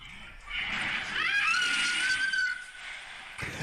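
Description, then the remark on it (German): A woman sliding down a slide lets out a long, high-pitched scream lasting a couple of seconds, rising and then holding steady before fading, over a steady background hiss. “Man hört eine schreiende Person, warte.”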